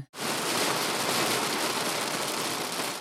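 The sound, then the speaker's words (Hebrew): Steady rain falls continuously, a dense, even patter of raindrops hissing across a broad band, fairly loud, with no voices or other sounds over it. “להסתכל על טיפות הגשם מבעד לחלון.”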